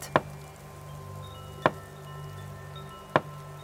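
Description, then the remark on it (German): Three slow, evenly spaced knocks on a small, round wooden door of a house, each a crisp rap standing out clearly over a faint, steady background hum. “Sie läuft ums Haus um zu einer kleinen runden Türe aus Holz und pöpperlet.”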